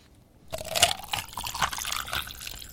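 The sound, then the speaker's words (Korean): After a moment of silence, water pours steadily into a cup full of ice, seeping between the ice, splashing and gurgling over a couple of bright ice clinks. It's fairly loud, with no voices. “이게요, 물 따르는 소리인데 얼음이 가득한 그 컵에 물을 따르고 있습니다.”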